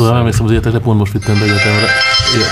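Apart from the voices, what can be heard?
phone ringing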